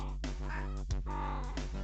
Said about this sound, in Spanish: Ah, güey, andes cachonda tú. Está cachonda tu gatita, güey.